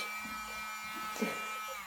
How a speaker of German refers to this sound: Also für den Fall, dass sich jetzt gerade jemand wundert, warum ich jetzt hier schon wieder das Ding. Ich, ich reinige gerade mit diesem Staubsauger meinen Fuß. Sehr erfolgreich tatsächlich.